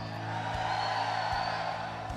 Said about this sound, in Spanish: ¿Qué problema, iglesia? Y en la iglesia se ven hombres ahora. A ver, solamente los hombres, un grito de guerra.